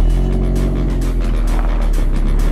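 A car engine hums steadily with a deep, constant rumble, as if heard from inside a moving vehicle, with road noise filling the background and no one speaking.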